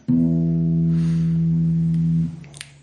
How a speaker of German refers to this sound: Und zwar ähm, gibt es da auch sogenannte Oberschwingungen. Das heißt, wenn ich jetzt wieder meine Gitarrenseite anspiele,